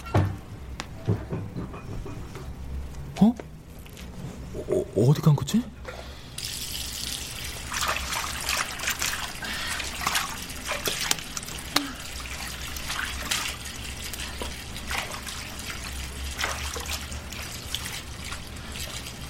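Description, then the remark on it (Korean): A tap runs steadily into a bathroom sink as a woman brushes her teeth and washes her face, a continuous splashing broken by a few clinks and handling sounds early on, then flowing on without pause as washing continues. “여자는 양치를 했고 세수를 했다. 머리라도 감는 듯 물소리는 쉬 그치지 않았다.”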